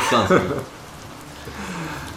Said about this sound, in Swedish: Hur ser det ut där ute? Det är lugnt. Nothing but the rain.